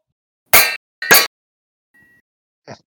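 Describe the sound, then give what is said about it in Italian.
Two loud metallic clangs, like something struck hard, ring out about half a second apart, followed by a brief faint tone and a softer final clank, used as a quiz buzzer. No one speaks. “No, si sente, si sente, ma vogliamo avvisare i nostri ascoltatori che nessuna padella è stata picchiata nella realizzazione di questo rumore.”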